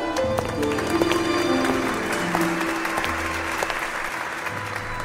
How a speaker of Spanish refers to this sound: Fuerte aplauso al único, al irrepetible